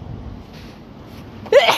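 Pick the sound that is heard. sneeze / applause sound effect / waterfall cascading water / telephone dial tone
sneeze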